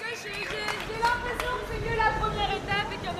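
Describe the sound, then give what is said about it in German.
Lively crowd chatter at an outdoor zero-waste neighbourhood street party on a summer Sunday at midday, with dozens of residents seated at a very long table: many overlapping voices talking and laughing at once, a steady, dense babble with a few brighter voices rising above it. “sitzen an einem Sommersonntag mittags Dutzende Anwohner an einer ellenlangen Tafel. Die Stimmung ist sehr ausgelassen.”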